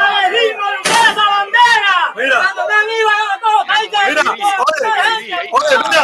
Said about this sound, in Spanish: se siente una patada que le dieron a la puerta de mi casa, que afortunadamente era una puerta de eh, bastante fuerte de hierro